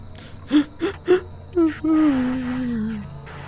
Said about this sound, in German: Ich würde auch schon mal die Tür aufmachen. Als du die Tür aufmachst, hörst du ein leises Wimmern von unten.